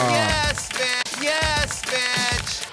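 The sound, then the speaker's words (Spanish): A goat bleats several times in quick succession, each call loud and wavering with a nasal, quavering tone, filling the short clip without any talking. “Dame una cabra.”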